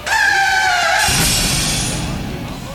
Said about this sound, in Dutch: Oké, sorry, ik moest de jingle nog eens draaien.